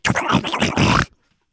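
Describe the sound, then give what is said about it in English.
A voice imitates an old man slurping tapioca pudding, a wet, gurgling slurp, a loud burst of about a second with several pulsing surges before cutting off into silence. “That's an old man slurping tapioca pudding.”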